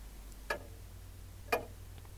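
Two crisp clock ticks sound exactly one second apart over a quiet low hum, steady, with no voices.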